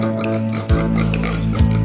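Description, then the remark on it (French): A pig oinks twice, about a second apart, short grunting snorts set against steady backing music with sustained tones. “Il y a trois petits cochons, la queue en qui bouchon”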